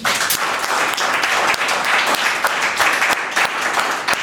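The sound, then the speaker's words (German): Sustained audience applause for guest Kevin Kühnert, a dense, steady wash of many hands clapping at once for several seconds, loud and even throughout with scattered sharper claps standing out. “Nochmal einen Applaus für Kevin.”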